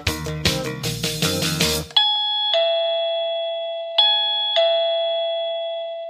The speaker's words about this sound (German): Ich glaube nicht, dass irgendeiner in Kröpzig nicht weiß, wo dieser Gong ist, denn ich sitze jetzt hier in Kröpzig beim Stadtbäcker